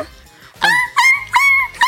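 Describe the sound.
A person imitates a crying dog with four high, whiny cries in quick succession, each a drawn-out nasal whine, fairly loud with no other talk.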